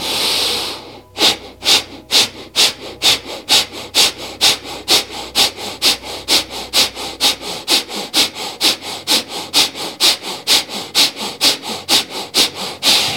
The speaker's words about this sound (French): On recommence l'exercice, on le fait à peu près 20 fois, donc on recommence respiration très rapide, on y va.